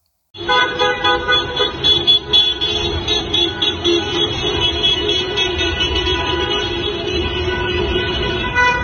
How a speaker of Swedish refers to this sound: Och i Malmö körde en flera hundra meter lång bilparad flaggviftande och tutande genom stan, vilken avslutades med fyrverkerier.